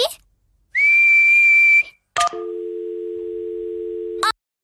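Someone attempts to whistle by joining their lips and blowing, producing one steady, high whistle note lasting about a second, followed by clicks and a long, flat, buzzy electronic tone like a phone dial tone as the call is hung up.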